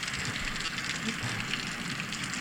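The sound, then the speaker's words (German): Steady rain falls in a dense, hissing patter with fine crackling texture, evenly loud and continuous throughout with no pauses or voices. “Oh, bei mir kommt gerade so ein, äh, ein Regen Rain. hier rein.”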